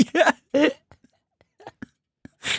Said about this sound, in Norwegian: Vi kan ikke holde på sånn. Klokka er snart halv sju. Ah, dere driver og promper på radio!